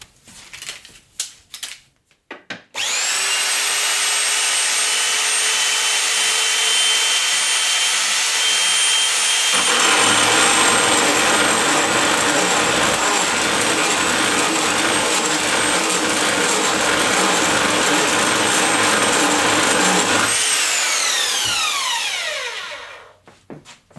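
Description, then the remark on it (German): A power saw whirs up to speed, then bites into a clamped metal pipe, cutting it to a length of 81 cm for a clothes rack, with a steady grinding, rasping cut for about ten seconds before winding down with a falling whine. Oil is used for cooling. Loud, no voices. “Markiere mir die 81 und dann säge ich das auf Länge.”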